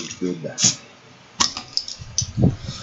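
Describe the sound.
A bottle of Lapplands Guld beer is pried open with a cap opener, giving a sharp metallic pop followed by a steady fizzing hiss as it foams over, with people talking.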